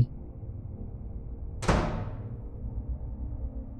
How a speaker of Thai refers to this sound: เดินไปแค่ไม่กี่ก้าว จู่ๆผมก็ได้ยินเสียงปิดประตูดังมาจากบ้านหลังหนึ่งที่ผมเพิ่งเดินผ่าน